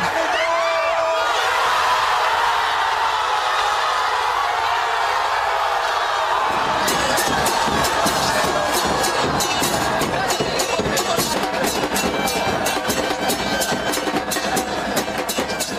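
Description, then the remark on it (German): A large crowd in Messi's homeland celebrates the third World Cup title loudly and continuously, a dense roar of cheering voices; partway through, rapid sharp cracks like firecrackers or drumming burst in and keep going over the din. “Ewiger Ruhm sei ihm gewiss, titelte die Zeitung Chronika in seiner Heimat, wo der dritte WM-Titel gefeiert wurde. Und so klang das dann gestern.”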